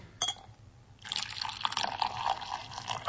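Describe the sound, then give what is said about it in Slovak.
Hot water is poured over a ball of rolled-up tea, which unfurls in the water, in a steady, splashing stream that starts after a short pause, following a brief tap at the start. It runs continuously, bright and hissy, with no talking. “Toto krásne tečie.”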